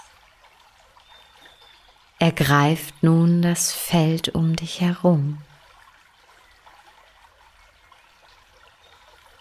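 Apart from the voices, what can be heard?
flowing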